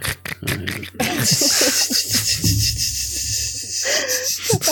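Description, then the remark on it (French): A voice imitates crickets with raspy, hissing mouth noises: a sustained, breathy high-pitched trill lasting a few seconds between short snorting breaths, fairly loud. “Vas-y, fais un peu les grillons. On peut faire les grillons à la bouche.”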